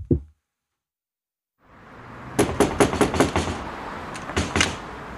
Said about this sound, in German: warum ist die Tür zu? Ist zu? Ist abgeschlossen. Ach Quatsch. Doch, geht nie auf. Quatsch. Klopf's mal am Fenster. Ich hab auch geklopft. Klopf's mal am Fenster. Klopf's noch mal.